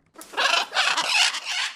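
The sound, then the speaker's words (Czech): Harsh, raspy calls of two blue-and-yellow macaws kept by a breeder in Ostrava, released to fly around her apartment building: three loud grating squawks in quick succession, with no talking. “Místní lidé si tak už zvykli, že ve večerních hodinách jim nad hlavami mohou prolétávat exotičtí modrožlutí ptáci.”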